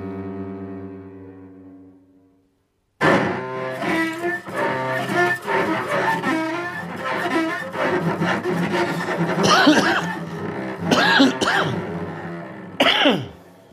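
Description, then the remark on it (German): A low, steady droning tone gives way to a long, loud smoker's coughing fit, not a COVID cough: harsh, raspy hacks and wheezy, rough breaths that come in irregular bursts and stay dense to the end. “Ein äh, Husten, das ist Raucherhusten, nicht Corona.”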